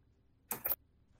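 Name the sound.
computer keyboard typing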